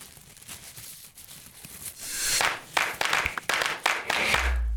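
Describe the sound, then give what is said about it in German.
Old dried tobacco leaves crackle and rustle as a city guide handles them at the tobacco warehouse in Bünde, a steady crisp crinkle that swells louder in the second half with sharp bursts, then a low thump at the end. “Und dort zeigt Stadtführer Jörg Millitzer dann auch mal alte Tabakblätter und lässt sie knistern.”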